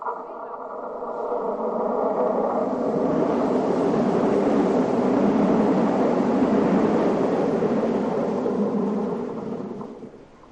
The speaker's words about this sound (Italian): È una depressione che si crea quando passa il treno. Il treno passa nella galleria ad alta velocità. La galleria è stretta, ok?